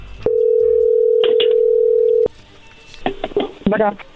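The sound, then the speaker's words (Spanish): A steady, loud telephone dial tone holds for about two seconds, broken by a couple of short keypad beeps as a number is dialed, then cuts off; faint voices and clicks follow afterward. “A ver, bueno, ya se está marcando.”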